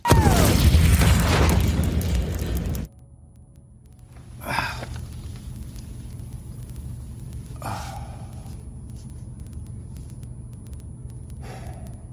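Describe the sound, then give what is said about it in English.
A loud, roaring explosion from burning hydrogen with oxygen to make water fills the opening seconds with a deep boom and then cuts off abruptly, leaving a quiet low hum broken by a few soft breathy gasps. “So, oh, yeah, I blew myself up.”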